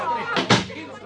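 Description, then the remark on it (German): A door slams shut once, a short, heavy thud, with indistinct voices murmuring before and after it. “Um Himmels Willen, machen Sie die Tür zu.”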